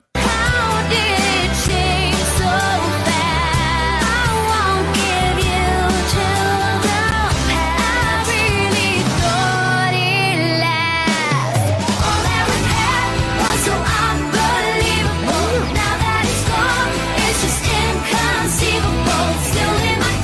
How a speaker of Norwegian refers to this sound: Jeg dro fram eh, litt gamle, gamle …-låter, skal vi høre her.